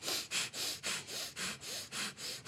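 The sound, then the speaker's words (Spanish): Quick, forceful breaths in and out through the nose in the breath of fire breathing technique, about ten hissing bursts in steady rapid rhythm, fairly loud with no talking. “Entonces lo que hacemos es Primero, o sea, respiración de fuego, ¿no? Inhalo y exhalo por la nariz de manera acelerada, o sea, como algo así, exacto.”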